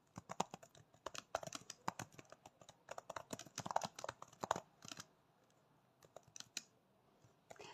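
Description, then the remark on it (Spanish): Rapid, uneven typing on a computer keyboard, fairly crisp, with bursts of clicks for about five seconds, then a pause and a few scattered keystrokes toward the end. No voices. “Y voy a escribir.”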